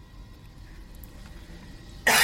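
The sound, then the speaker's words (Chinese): A single sharp cough bursts out at the very end after about two seconds of quiet low background hum, loud and abrupt with a harsh, breathy rasp. “我想想听，听得我想咳嗽，这这这有点真的是。”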